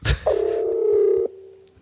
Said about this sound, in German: Oh, please. Nicht nochmal den Weckerton